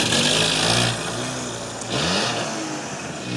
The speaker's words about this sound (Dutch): We moeten nu even oppassen, want er komt een, een auto ons van de sokken rijden.